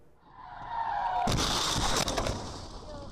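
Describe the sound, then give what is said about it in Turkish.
A rising vehicle rumble turns into a loud, harsh grinding and scraping roar of metal and tires skidding as a bus drags a car along, with sharp bangs around the midpoint, continuing for a couple of seconds before easing slightly. In Gölhisar district, Burdur, Turkey. “Üzerine otobüsün sürüklediği otomobilin geldiğini görünce saniyelik hareketle kıl payı kurtuldu.”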